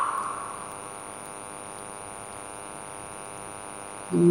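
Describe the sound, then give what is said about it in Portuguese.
A steady electrical static buzz with a thin high whine from street lamps, as when their bulbs are burning out, holds at a constant level throughout, swelling slightly louder right at the end. “você começa a ouvir um barulho de estática, sabe, dos postes.”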